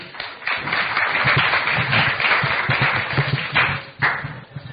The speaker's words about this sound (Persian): خب تشویقشو بکنید